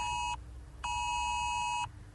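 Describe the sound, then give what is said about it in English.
A loud, harsh electronic phone alert tone from a test of the UK government's emergency alerts service sounds in two bursts, a short one and then a longer sustained one, steady in pitch over a low background rumble, with no talking. “an annoying beep on your phone. It's Leave the test it of the emergency it. alerts, a new UK government service that will warn you if there's a life threatening emergency nearby.”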